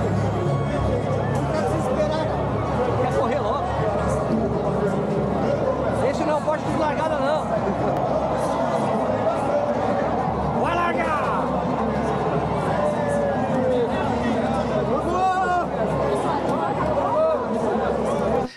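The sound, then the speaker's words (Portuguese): A large crowd of runners chatters steadily at the start of a race, many overlapping voices forming a dense, continuous hubbub, with occasional louder voices and shouts rising briefly above the babble. “E olha a quantidade de gente, né, meu?”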